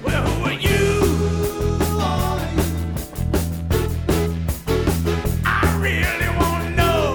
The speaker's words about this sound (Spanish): Una canción maravillosa, espectacular, seis minutos de puro buen rollo, de pura energía que usted tiene que escuchar